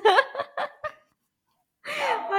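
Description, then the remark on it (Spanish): A dog protests with a quick run of four short, high whining yelps, falls silent briefly, then lets out a longer, wavering whine, clear. “Eso, eso, eso es mi perro protestando contra ti.”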